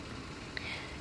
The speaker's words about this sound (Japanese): 今、あの、別府湾に面している大分県のホテルで、部屋の窓を少しだけ開けて、それで、あの、海に面してるんですけれど、波の音というよりは、あの、1階にあるプールの噴水の音が入っている感じですね。